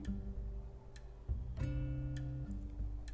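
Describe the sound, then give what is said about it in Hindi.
A clock ticks in slow, steady beats, the faint clicks sitting beneath sustained background music with no voices. “सही जवाब है घड़ी”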